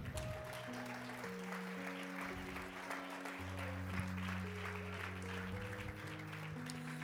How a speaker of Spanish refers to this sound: un aplauso al Señor.